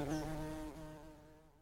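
A single bee buzzes steadily with a rich, droning hum, then slowly fades as it seems to drift away over under two seconds.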